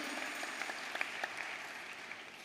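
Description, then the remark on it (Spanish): A crowd applauds steadily, a dense wash of many hands clapping at an even level with a few sharper claps standing out, with no voices over it. “Dale un aplausito por lo menos mejor.”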